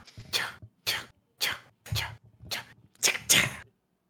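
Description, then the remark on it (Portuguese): A voice imitates the sound of hunters with a rhythmic series of short, breathy, hissing bursts, ending in a louder double burst that mimics a gunshot. There is no speech. “Nossa, teve até um tirão no final, coisa insana.”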